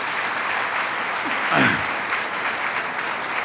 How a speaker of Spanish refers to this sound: Denle un aplauso al Señor, eso está bueno.